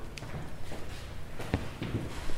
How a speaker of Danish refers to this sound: Nu skal jeg trække stolen ud.